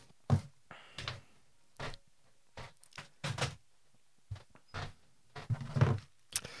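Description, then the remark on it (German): A window is being closed: a series of irregular thuds, scrapes and clunks over several seconds, with a louder bump near the end, and no talking. “Du, ich mach mal hier das Fenster zu, der liebe Gott ja.”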